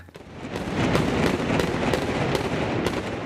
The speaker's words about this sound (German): So klangen die Prangerschützen bei ihrem Altjahresschießen.